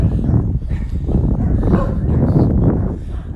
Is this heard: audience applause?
no